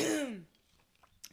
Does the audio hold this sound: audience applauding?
no